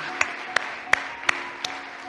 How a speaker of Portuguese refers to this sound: Siga orando e uma vez que estão todos aí se ponen de pé uma vez mais todos e dê um aplauso enorme a Jesus Cristo